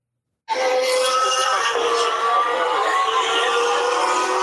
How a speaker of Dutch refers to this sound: En dan hoor je zeg maar achter de duinen hoor je die Formule 1 auto's al scheren. Weet je wat je dan hoort? Voem, hoor je dan. Voem? Ja, voem. Dok, dit hoor je dan.